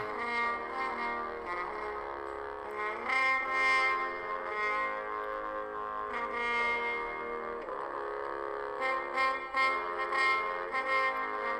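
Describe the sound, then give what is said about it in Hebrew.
A French horn plays a solo melody of mostly long, sustained notes with a few quicker notes near the end, its tone full and steady at a moderate volume, with no talking. “קרן היער הזאת זה כלי כזה שנראה כמו חצוצרה, אבל מסובכת ו- ומעוגלת מבפנים.”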